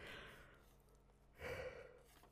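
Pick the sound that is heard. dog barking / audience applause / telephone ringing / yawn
yawn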